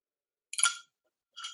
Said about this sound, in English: Pardon me while I take a sip of